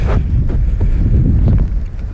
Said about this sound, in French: c'est qu'il y a beaucoup trop de vent. Du coup, ça fait du bruit dans le micro.